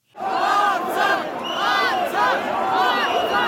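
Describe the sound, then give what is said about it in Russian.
A large crowd of protesters in Armenia shouts and yells together in loud, overlapping waves while trying to storm government buildings, a dense, agitated roar of many voices with no pauses. “Позже протестующие попытались взять штурмом здания правительства.”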